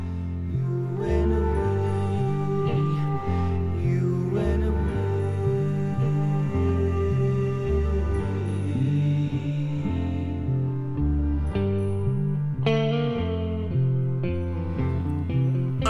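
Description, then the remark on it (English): A gentle rock song plays steadily, with soft flute and woodwind lines floating over a pulsing bass and warm chords, and a brief thinning of the arrangement near the end. “But this one not only takes it a step further with flutes and woodwinds,”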